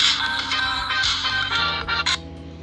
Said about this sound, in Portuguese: Ah, o telefone ligando.